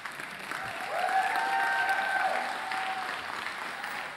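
An audience claps together in a steady, dense wash of applause, sustained for the whole moment, with a faint voice or cheer rising briefly in the middle.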